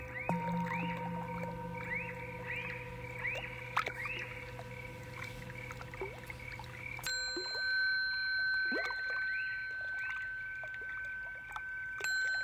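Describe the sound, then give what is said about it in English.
Water sounds and cricket chirps pitched down about an octave: the water gurgles and drips, and the crickets become deep, warbling low chirps, with steady ringing tones sustained underneath; no one speaks. “This water sound has been remixed. I've dropped it down, I think, an octave so that the water became more liquidy and the high pitched crickets became more of a low pitched cricket or birds.”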